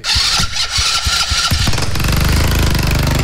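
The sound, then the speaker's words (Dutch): A mobility scooter fitted with a 125cc Honda engine, after standing for a while, cranks with a few rough, sputtering turns, then catches and settles into a loud, steady, rumbling idle, with no voices over it. “Een scootmobiel met... Ja, wat, wat zit hier voor motor onder? 125. Honda.”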